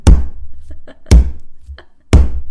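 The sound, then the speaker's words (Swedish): A jump rope smacks the floor three times in a steady rhythm, about once a second. Each hit is a sharp, loud slap with a short low thud trailing after it. “Var det repet eller du? ja, det var repet.”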